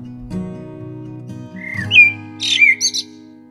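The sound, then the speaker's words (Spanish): A tapir gives a few short, high-pitched whistles and squeaks that sound like a bird's chirps, fairly loud over a low steady hum, with no talking. “Los tapires pueden hacer sonidos como de pajarito.”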